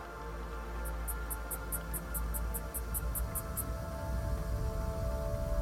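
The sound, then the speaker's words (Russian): About a dozen light, crisp scissor snips follow one another in a quick, even rhythm as hair is trimmed strand by strand with light movements, over a steady low background hum. “Звук ножниц напоминает вам стрекотание цикад.”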